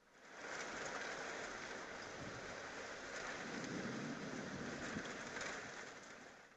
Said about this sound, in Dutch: Het geluid van de regen.